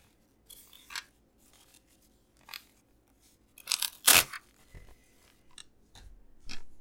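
Paper is torn several times in short, raspy rips, the loudest coming midway, each ripping sound crisp against a quiet background with no talking.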